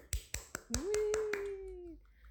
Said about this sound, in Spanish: Un aplauso.